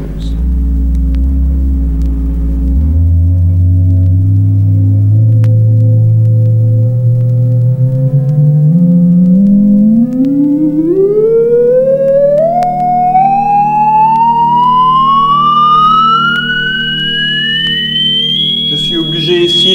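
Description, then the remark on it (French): A steady, loud tone, its frequency progressively raised on a frequency meter, sweeps smoothly upward in pitch from a deep low hum to a high whistle over about twenty seconds, with faint harmonics rising alongside it. “Je vais augmenter progressivement cette fréquence et nous allons progressivement entendre quelque chose.”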